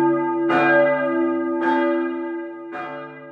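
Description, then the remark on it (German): Church bells of a very small town ring out in three loud, evenly spaced strokes, each leaving a long humming resonance that carries on beneath the next. No voices are heard. “Aber ich litt ein bisschen an Schlafproblemen, weil die Kirchenglocken dort so laut läuten, dass ich früh morgens aus dem Bett gesprungen bin und abends beim Einschlafen gehindert wurde.”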